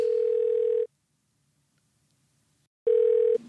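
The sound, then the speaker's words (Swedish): A phone ringback tone as a call is placed: two steady, fairly loud electronic beeps separated by a long silent gap, heard clearly on its own without any voices. “Jajamän, nu ringer det här.”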